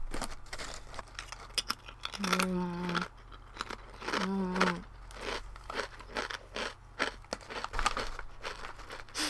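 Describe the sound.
Calbee Kata-age Potato chips in Hakata mentaiko and Ariake seared nori flavours crunch loudly and crisply as someone eats them as a snack, in a rapid, irregular series of snaps, broken by two short hummed vocal sounds of approval.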